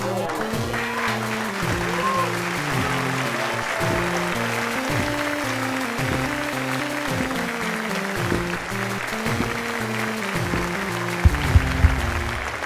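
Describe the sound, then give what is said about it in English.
A large crowd applauds steadily for about twelve seconds, dense clapping mixed with a droning wash of cheering voices, holding an even loudness with a couple of sharper bursts near the end. “Tremendous crowd, folks.”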